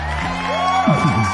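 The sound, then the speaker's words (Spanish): An audience cheers and whoops with applause for a production crew member and film critic, a loud, continuous wash of crowd noise with rising shouted whoops near the end. “Un fuerte aplauso, por favor, para el buen Carlito Bon Carlito.”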